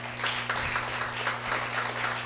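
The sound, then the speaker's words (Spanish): Sustained audience applause for the King, a dense wash of many hands clapping at a steady, fairly loud level with no one speaking over it. “Dale un aplauso al rey porque tenemos un rey.”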